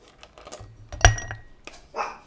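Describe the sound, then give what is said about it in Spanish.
A dog barks angrily and sharply twice, a loud bark followed about a second later by a second, slightly softer one, with some faint clattering in the background and no talking. “Para entrar a esta sección ya los perritos están emputados.”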